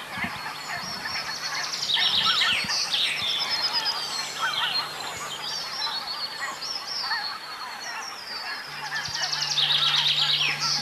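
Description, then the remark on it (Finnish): A chaffinch and a blue tit sing amid a busy dawn chorus at sunrise under a cloudy sky, with bright, rapid trilled phrases rising early and again near the end, over a steady low drone. “Tuossa kuuluu hieno Peippo ja Sinitiainen on kanssa tuossa.”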